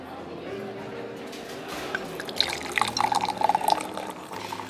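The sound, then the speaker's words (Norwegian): A drink is poured into a glass in a restaurant, a short burst of splashing, gurgling liquid, set against a soft, steady murmur of background chatter. “Se for deg en hyggelig restaurant, dempa belysning og hvite duker. Noe godt i glasset.”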